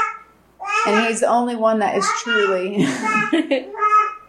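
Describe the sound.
A young child babbles in the background, high and chattering, while an adult speaks clearly over it.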